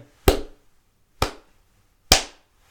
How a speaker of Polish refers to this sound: Takie mniej więcej oklaski się rozlegają.